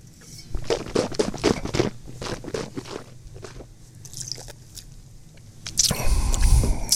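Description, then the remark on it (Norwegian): Wet mouth noises as someone tastes wine: a quick series of smacking, squishy clicks, then a longer, louder hissing slurp as air is drawn through the wine near the end. “Eh, nå skal jeg smake litt.”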